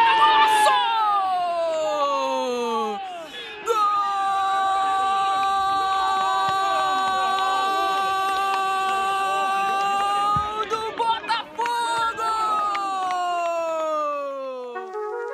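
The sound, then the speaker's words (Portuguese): A stadium crowd roars and cheers for the opening goal of Botafogo's win over Motoclube, a Copa do Brasil match played in March 2021, while a commentator shouts over it in long, drawn-out, high-pitched cries. The noise stays loud and sustained throughout. “O gol que você acabou de ouvir abriu a vitória do Botafogo sobre o Motoclube.”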